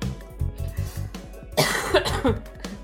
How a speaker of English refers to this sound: Sorry, let me try that again. Hold on, I have to cough.